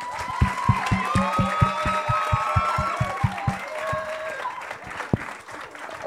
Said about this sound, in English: Can we clap it up for the panel?